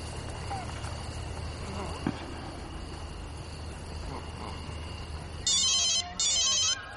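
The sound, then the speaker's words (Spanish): A mobile phone hanging from a cable strung across a shared courtyard rings in two bright, trilling electronic bursts near the end, loud over a steady wash of outdoor background noise that fills the earlier seconds. “Al día siguiente, un móvil suena en el patio.”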